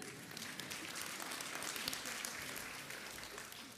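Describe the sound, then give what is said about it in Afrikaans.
An audience applauds steadily throughout, a dense wash of many hands clapping at once, sustained without pause for a few seconds. “Geef haar lekker 'n klap toe.”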